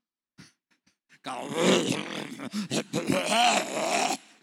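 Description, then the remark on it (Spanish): A man's voice mimics loud snoring, a run of rough, gurgling snorts and groans lasting a few seconds, alone after a brief quiet start. “Estás viviendo con un hombre que lo único que hace es roncar y dar vuelta en la cama.”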